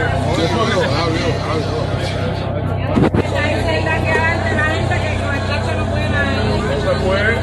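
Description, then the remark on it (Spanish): A car with its windows closed drives through a tunnel, its steady, booming road rumble filling the tunnel, with muffled voices talking over it and a brief sharp knock partway through. “A la clase, candela que afuera porque el carro no está abierto. With estamos en el túnel.”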